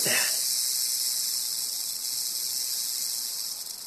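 A rattlesnake by a trail rattles its tail as a warning after being walked up on, in a continuous, dry, high-pitched buzz that holds steady for several seconds without a break, fairly loud and with no voices over it.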